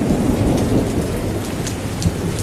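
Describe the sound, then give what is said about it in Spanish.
Steady heavy rain pours down on a town square in a dense, constant hiss, with a low rumble of thunder rolling beneath it, the water having risen almost to the height of the curb. No voices, just the continuous downpour. “Además, acompañaba el sonido mirando por un amplio ventanal que daba la vereda y que me mostraba una de las esquinas de la plaza, empapada por el agua, que ya había subido casi, casi hasta la altura del cordón.”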